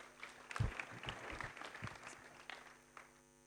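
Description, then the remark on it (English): An audience applauds as a speaker comes up to share about stronger families, a dense patter of many hands clapping at once, fairly steady and moderately loud before gradually thinning out toward the end. “a big round of applause as he comes up and shares about stronger families?”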